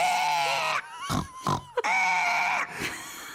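A piglet squeals and grunts in a frantic burst inside an artillery shell canister, shrill drawn-out cries broken by short snorting grunts, with no one talking.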